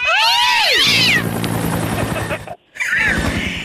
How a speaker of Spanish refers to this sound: Yo pongo el helicóptero en más. Sube el helicóptero